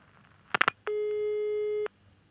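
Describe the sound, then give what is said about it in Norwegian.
A brief clatter of clicks, then a single steady telephone ringing tone lasting about a second, clear and fairly loud with nothing else around it and no voices; a phone call from Donald Trump to the Ukrainian presidential office on Thursday 25 July. “Hva skjedde torsdag 25. juli da Donald Trump ringte til presidentkontoret i Ukraina?”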